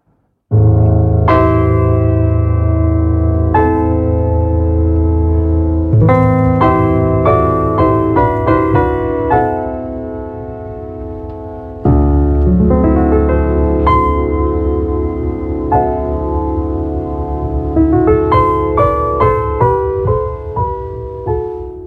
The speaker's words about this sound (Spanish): desde el principio hay un piano. Tira al principio, principio, principio, principio.